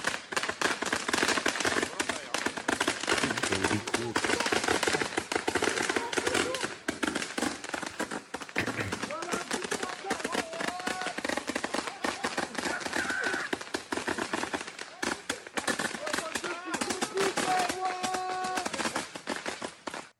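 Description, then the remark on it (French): A relentless barrage from a 380-shot firework mortar, lit once, exploding: loud, sharp bangs and crackling bursts in rapid irregular succession, with voices and whistling tones mixed into the din. “Et ça, c'est 500 euros les 10. Les 10 mortiers comme ça.”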